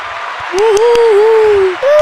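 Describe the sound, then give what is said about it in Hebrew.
An applause sound effect: steady, dense crowd applause fills the whole two seconds, with a sustained voice-like cheer rising over the clapping midway through. “האפקט השלישי שלנו זה כפיים, נגיד מתי שמישהו, אה, נגיד בהתחלה, שאנחנו שאומרים, אה, כאן שלום כולם, ואז כולם מוחאים כפיים, אז תשמעו.”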